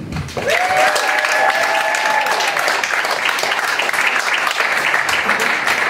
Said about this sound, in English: Hi everyone give yourself another round of applause for coming here and supporting this piece.